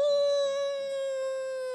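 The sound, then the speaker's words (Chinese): A voice imitates a terrifying monster roar while reading the picture book Elmer and the Monster aloud in Chinese, as one long, sustained howl-like 'awoo', held at a steady, fairly high pitch for almost two seconds and easing off slightly at the end. “花格子大象艾玛刚刚开始散步，就听到了一声可怕的吼叫。”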